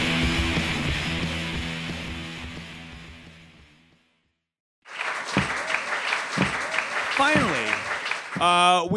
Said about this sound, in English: How about a round of applause for Chicago comedic artist